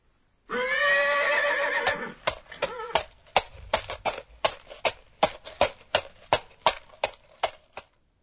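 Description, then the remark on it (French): A horse gives a short whinny, then its hooves clip-clop in a steady, even walking rhythm, about a dozen crisp hoofbeats with no voices. “C'est le son d'un cheval qui marche.”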